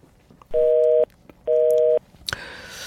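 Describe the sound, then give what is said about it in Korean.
A telephone call disconnecting: two steady busy-signal beeps, each about half a second long with a pause between, loud and clear, followed by a brief sharp click and a burst of hissy noise, used as a sound effect in a radio music show's treasure-hunt segment. “전화가 끊긴 소리예요, 이게.”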